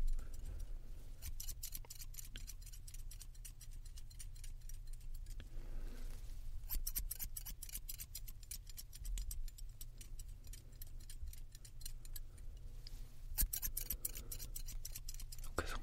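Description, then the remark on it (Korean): Crisp scissor snips cutting a customer's long hair into a layered cut at a hair salon, in quick, steady rhythmic bursts, with short pauses between runs of cuts and a low hum underneath; no one speaks. “헤어샵 ASMR : 머리 컷트해드리고”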